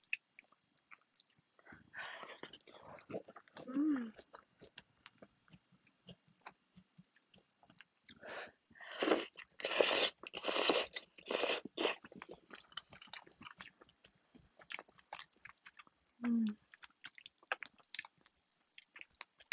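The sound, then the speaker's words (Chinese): Crunchy, wet chewing of crisp cabbage and noodles from a pot, the cabbage added just before the pot came off the heat, with a dense burst of loud crackling bites in the middle and softer chewing around it, plus a couple of brief murmured sounds. “高丽菜，嗯，嗯，我最后要起锅之前才把高丽菜放下去，所以还脆脆的。”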